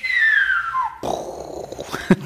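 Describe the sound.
A person whistles a single sliding note that falls steadily in pitch for about a second, imitating a firework rocket, followed by a breathy, noisy burst and a few softer mouth sounds.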